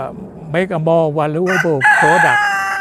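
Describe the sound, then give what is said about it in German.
A rooster crows loudly, one long, strained cock-a-doodle-doo that rises and wavers before breaking off, with no voices underneath. “Er greift in eine Tonne mit Körnern, wirft sie auf den Boden für die Hühner.”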